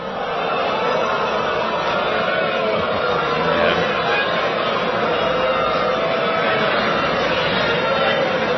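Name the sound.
crowd booing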